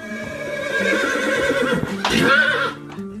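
A well-kept, handsome horse neighs loudly as a man checks its advance, a long quavering whinny that swells into a shrill, wavering burst near the end before cutting off.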